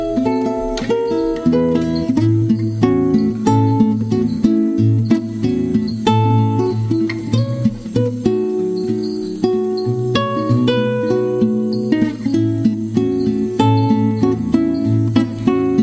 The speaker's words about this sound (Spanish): una canción que se llama … y que suena así de bien